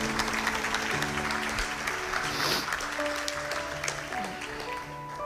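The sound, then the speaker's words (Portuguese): A church audience applauds the Lord steadily, a dense wash of many hands clapping, while sustained organ or keyboard chords hold underneath and shift pitch a few times. “Então aplauda o Senhor em nome de Jesus, você recebe essa palavra.”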